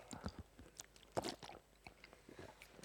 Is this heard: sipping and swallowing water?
yes